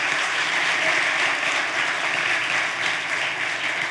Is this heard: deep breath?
no